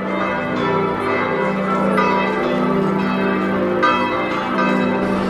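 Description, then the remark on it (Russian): Church bells ring out from the 84-metre Gothic bell tower of Giotto's Campanile in Florence, overlapping peals with a rich, sustained hum, steady and fairly loud throughout with no talking. “Ну вот как раз в вовремя заработали колокола колокольни Джота”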